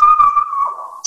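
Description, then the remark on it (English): A puppy howls along with sirens heard outside, in one long, steady, high-pitched note that wavers and drops slightly near the end, cut off by a brief noisy burst. No one speaks. “Your puppy sang that's our dog.”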